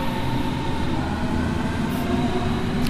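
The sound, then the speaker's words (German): An S-Bahn commuter train pulls away from a station, its low droning roar and faint tonal hum rumbling steadily without pause as it moves along the tracks. “ich warte mal noch, bis die S-Bahn weggefahren ist.”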